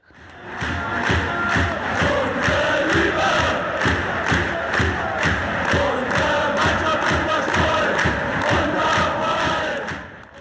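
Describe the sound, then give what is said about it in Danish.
A large stadium crowd of Berlin club FC Union football supporters chants in unison, loud and continuous, with rhythmic pulses and thumping beats under the massed voices for about ten seconds. “Det er en, selvfølgelig Berlinklubben FC Union,”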